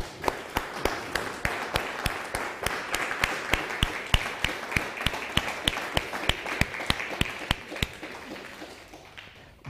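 A crowd applauds for about ten seconds, a dense wash of clapping with a sharp, steady rhythmic clap cutting through it, then thins out and fades at the end.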